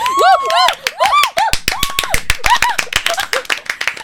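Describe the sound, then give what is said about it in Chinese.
Several people clap their hands fast and unevenly in a sustained burst, making their own sound effect to imitate post-dubbed canned studio applause, while high, sliding whoops and cheering voices ring out over the first part. “很像罐头掌声”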